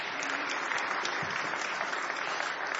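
A crowd claps steadily, a dense, continuous wash of many hands applauding at close range, fairly loud and sustained without pause.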